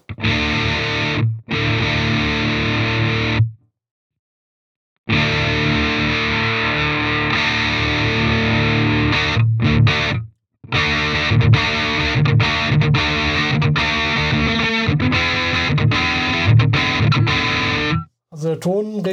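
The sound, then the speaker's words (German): A distorted electric guitar, played through a Duo-Verb amp with a DS-1 distortion pedal in front set to less gain, plays loud chords and riffs with reverb, cutting off abruptly in a few short silent gaps before resuming. “Ähm, das ist immer noch der Duo-Verb, aber mit einem Distortion davor.”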